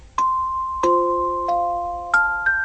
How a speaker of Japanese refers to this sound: ほらオルゴール聞こえてきたよねあのねこのオルゴールは9時になると鳴り出すの